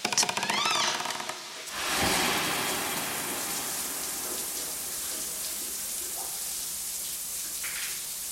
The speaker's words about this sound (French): est au beau milieu des douches et l'eau jaillit sur elle de tous les côtés.